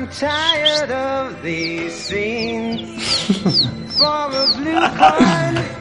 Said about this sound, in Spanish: Vamos a ver. Un, solo al silbe. A ver, un silbidico.